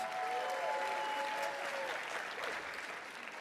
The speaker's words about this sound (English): Come on, y'all cheer Pastor John on here. just making laps like nothing. I believe he could probably hop down the stairs and ride down the aisles and and y'all give Pastor John one more hand. Thank you so much.